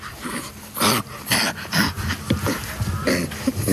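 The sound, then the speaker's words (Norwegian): Chimpanzee play panting, made when chimpanzees play and have fun together: a rapid run of hoarse, breathy huffs in an uneven rhythm, fairly loud, with no talking over it. “Og her er lyden de eh, lager når de leker seg og har det artig i lag.”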